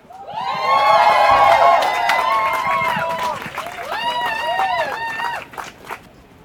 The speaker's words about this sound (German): Und zwar einen riesengroßen Applaus für